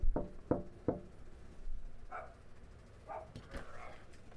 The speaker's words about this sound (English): You'll hear me knocking on his door. Okay, here we go. All right, I'm walking up to his front porch here.